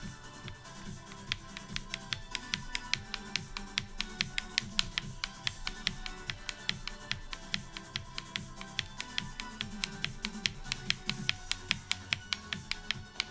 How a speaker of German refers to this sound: Das PS4 klicken.